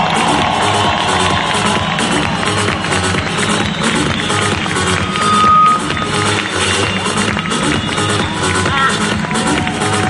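A large crowd applauds and cheers steadily for the full stretch to thank their mentors, a dense, loud wash of clapping with shouts and whistles mixed in and no pauses.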